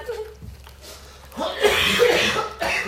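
A person coughs several times in quick succession, harsh, after a brief quieter stretch; the bursts are rough and breathy with no talking over them.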